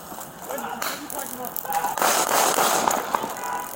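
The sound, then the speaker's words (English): Three sharp gunshot cracks from a played video ring out in quick, uneven succession over a steady wash of hissy background noise, with faint indistinct voices mixed underneath. “Okay, so you hear three shots.”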